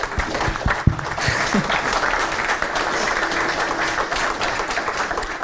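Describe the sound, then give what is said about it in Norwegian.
An audience breaks into sustained applause for the participants as a debate closes, a dense, steady wash of many hands clapping at an even loudness throughout, with a few sharper claps standing out near the start. “Gi dem en applaus først.”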